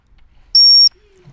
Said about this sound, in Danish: Så nu, hvis vi holder øje på bolden, så skal jeg fløjte lige, når hun rammer den.